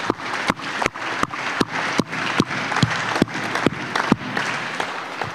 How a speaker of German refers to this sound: Hey, lass uns einen fetten Applaus geben.